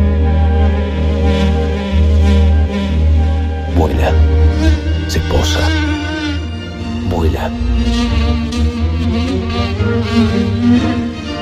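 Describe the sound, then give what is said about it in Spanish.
A steady fly buzz drones continuously for several seconds, loud and intimate as if right by the ear, with brief pitch swoops as the wings shift; the fly is perched on a person's nose, face to face with them. “La escucho. Me irrita. La puedo ver. Frente a frente. Posada en mi nariz.”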